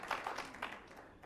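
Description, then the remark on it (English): A few scattered hand claps from a small group, soft, fading out after a brief moment. No one speaks. “I saw somebody wanted to clap there.”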